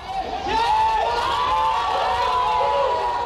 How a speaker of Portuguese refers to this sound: Mais gritaria.